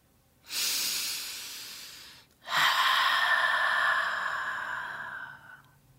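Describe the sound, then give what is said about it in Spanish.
Two long, deep, conscious breaths: a slow airy inhale of about two seconds, then a fuller, longer exhale that gradually fades out, with no talking. “En este momento agradezco mi existencia porque me encuentro en esta respiración.”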